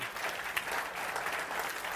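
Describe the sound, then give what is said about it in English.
A crowd at a sermon about God claps their hands steadily, a dense wash of many hands applauding at once, fairly loud and sustained throughout with no voices standing out. “I'm going to wait while you clap your hands.”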